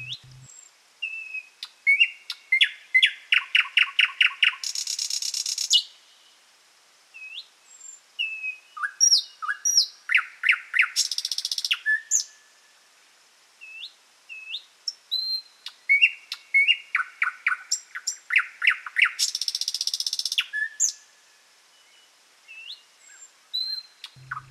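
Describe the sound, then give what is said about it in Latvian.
A nightingale sings alone in rich, varied phrases: rapid repeated notes, buzzing trills and clear whistles separated by brief pauses, loud. “Jā, 2023. gada uh, putns ir Lakstīgala.”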